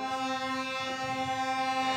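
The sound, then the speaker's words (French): A truck blocked by another truck blares its horn in one long, unbroken blast, holding a steady, fairly low pitch with a harsh, buzzy tone for the whole stretch. No voices are heard. “J'ai cru qu'il y avait un klaxon de camion dans l'appartement.”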